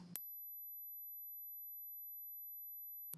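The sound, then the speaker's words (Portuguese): A steady, very high-pitched pure tone holds at one constant pitch for about three seconds, starting and stopping abruptly, with no other sounds around it. “Agora 12 mil Hz.”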